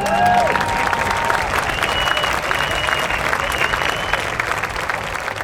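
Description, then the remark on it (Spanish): Steady applause from a group giving each other a round of applause fills the whole stretch, dense continuous clapping with a few faint whistles or cheers on top, fairly loud with no talking. “De manera que vamos a hacer una pausa y vamos a darnos un aplauso redondo a cada uno.”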